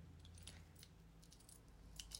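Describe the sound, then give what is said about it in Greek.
Keys jangling in a run of light metallic jingles and clinks, scattered irregularly and fairly quiet, over a low steady background hum with no talking. “Σε παρακαλώ, άφησε τα κλειδιά μου ήσυχα.”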